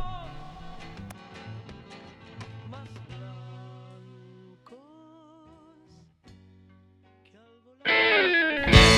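A 1998 rock song intro with effects-heavy, wavering guitar tones and sustained notes over a low drone, then a sudden loud burst of thick distorted sound near the end.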